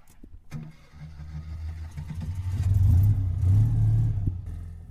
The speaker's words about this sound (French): On va découvrir l'Alsace à bord d'une deux chevaux. Attachez votre ceinture, c'est parti!